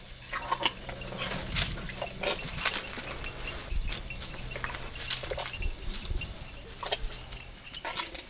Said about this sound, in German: Oder ein Elefant mampft Blütenblätter direkt am Zelt.